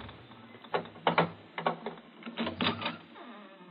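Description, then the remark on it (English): A bolt on the outside of a locked door is slid open, a series of rattling metallic clicks and short scraping bursts over about two seconds, with no voices. “Look, it's bolted on the outside.”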